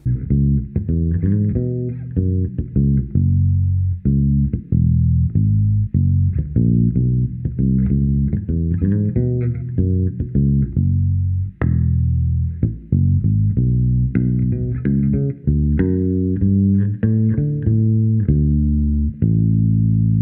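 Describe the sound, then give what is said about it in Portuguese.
A double bass plays a solo line in a lilting guarânia rhythm, its deep plucked notes steady for the whole stretch, with no voices or other instruments. “Vamos dar uma ouvida na linha de contrabaixo para você ouvir.”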